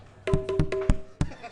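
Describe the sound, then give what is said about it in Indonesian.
A quick series of about five or six sharp knocks on a door, fairly loud, in an uneven rhythm, with a faint steady hum behind them. “Suara panto.”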